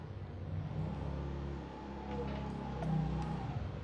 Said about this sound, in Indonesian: oke ternyata ada motor masuk ya